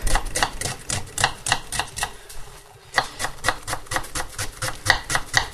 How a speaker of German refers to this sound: So, die Zwiebel in Würfel, möglichst fein.